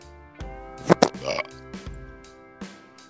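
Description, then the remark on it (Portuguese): A raspy fart right into the microphone: two sharp sputtering pops followed by a brief rumbling trail, with a steady low tonal hum underneath. “Tu ouviu que eu peidei no microfone?”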